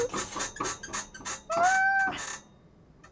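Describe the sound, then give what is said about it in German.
A squeaky wheel that needs oil, being turned hard to the left: a series of rhythmic rattling bursts, then one loud, whining squeak that bends upward and holds for about half a second before fading. “Das quietscht ein bisschen. Müssen wir wieder mal ölen, das Rad.”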